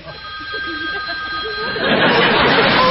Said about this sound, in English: Wait. Is that my phone ringing in your pants?